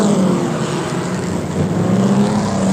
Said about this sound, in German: Und noch 20 Sekunden bis zum Start. Die Randbrillen werden heruntergenommen. Die Motoren heulen auf. Ein unverschämter Lärm. Noch 5 Sekunden.